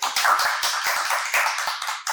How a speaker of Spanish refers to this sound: Un aplauso para la gente que